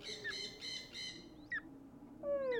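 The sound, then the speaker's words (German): Birds chattering and squawking outside, a few harsh, raspy calls in quick bursts with sharp chirps between them, fairly loud, with no voices. “Na, dieses Geschnatter da draußen. Hört ihr das nicht? Das Gekreische.”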